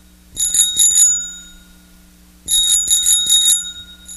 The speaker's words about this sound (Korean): 아, 자전거 따르릉 따르릉 소리군요.